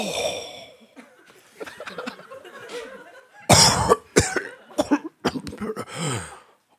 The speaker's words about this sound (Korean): 제 바로 옆 샤워기에 서신 할아버지는 연신 기침을 하시며 샤워를 하셨어요.